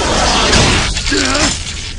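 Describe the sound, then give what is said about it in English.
A sharp, loud crack of a window being struck hard by a fist, a single impact with a brittle splintering edge, followed by a brief voiced sound underneath. “One more strike, and this window will shatter.”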